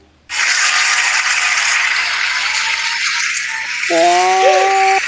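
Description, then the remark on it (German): A mechanical timer being wound gives a steady, loud ratcheting rattle for about five seconds. A brief buzzing tone joins near the end. No one speaks. “Gut, also ich stelle jetzt den Timer und wenn die Hupe hupt, dann ist deine Zeit vorbei.”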